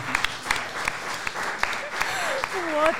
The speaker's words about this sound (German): Oh, der ist aber wirklich großartig. Da muss man halt auch klatschen, oder?